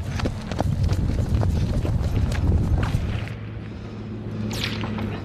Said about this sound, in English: Our team ran for cover you can hear the snap of the bullets.